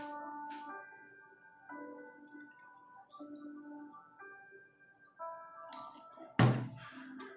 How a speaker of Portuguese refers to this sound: Faz a pergunta eu vou beber um pouquinho d'água.